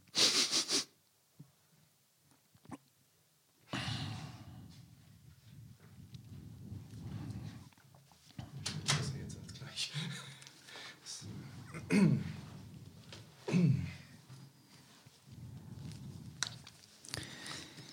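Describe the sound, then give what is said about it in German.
Loud nose blowing: a short sharp blast, a pause, then a long run of wet, honking blows and snuffly sniffs into a tissue, with no talking. “Stopp, ich muss mal gerade Nase putzen.”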